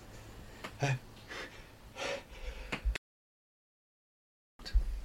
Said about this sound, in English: Hang on, I've got to sneeze.